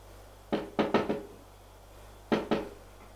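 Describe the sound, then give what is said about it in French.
Knocking on a bedroom door: a quick run of four sharp raps, a pause of about a second, then two more. The knocks are clear, with no voices. “va frapper à celle de sa mère. Pas de réponse.”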